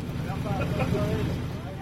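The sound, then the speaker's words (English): A small motorboat's engine drones steadily, a low rumbling hum with wind and water noise, continuous throughout, as the boat motors away from a dock in L'Estartit, a Spanish town up the coast from Barcelona, heading into a warm breeze off the Mediterranean. “I'm on board a small boat that's motoring away from a dock in L'Estartit, a picture postcard Spanish town up the coast from Barcelona.”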